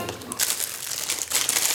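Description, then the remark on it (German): A chilled biscuit cake (Kalte Schnauze) being pressed out of its mold, heard as a steady, fairly loud crinkling and rustling, like foil or plastic lining being crumpled for almost two seconds, with no talking. “Oh, so aus der Form drücken und jetzt irgendwie mal schneiden.”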